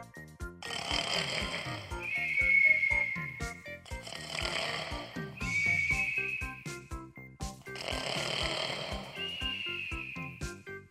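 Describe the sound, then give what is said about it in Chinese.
Loud, deep snoring of the dozing giant in a story about Jack and the beanstalk, shaking the whole house, repeats in three slow cycles, each a long rattling inhale that ends in a high whistling tone, with a steady low throbbing underneath. “没多久，大巨人又打起瞌睡，睡着了，鼾声震动了整栋房子。”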